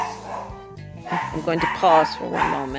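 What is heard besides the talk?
dog barking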